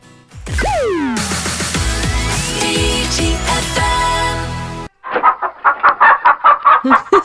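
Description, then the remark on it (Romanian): Hens cluck in a quick, steady run of loud clucks, following a few seconds of busy sweeping, zinging effect sounds with no one talking. “găinile cu care te-ai culcat, Bogdan, au venit toate la radio după tine”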